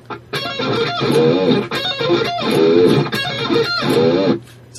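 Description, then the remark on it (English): A distorted electric guitar plays a quick repeating D minor arpeggio riff mimicking a band's cell phone ringtone, loud, with bright sustained notes and short breaks between phrases. No one speaks. “I'm going to show you how I play the cell phone ring.”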